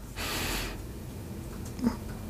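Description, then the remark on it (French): A single deep breath drawn in through the nose while inflating the belly as part of a breathing exercise, a soft airy rush lasting about half a second, followed by quiet with a faint brief rustle. “Donc j'inspire par le nez en gonflant le ventre.”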